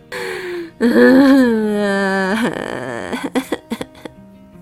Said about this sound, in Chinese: 咦，你们有没有听到奇怪的声音啊？小兔忽然竖起耳朵问：“哎，是哭声耶！”